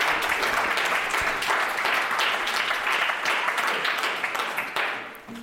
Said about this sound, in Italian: Un applauso.